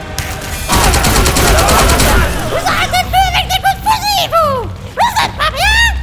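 Gun turrets fire a loud, rapid burst of automatic shots lasting about a second and a half, followed by high, swooping voice-like cries and chatter.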